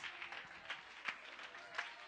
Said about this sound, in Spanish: Alguien puede aplaudir la gloria de Dios.